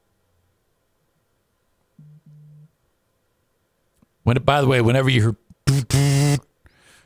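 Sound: mobile phone vibrating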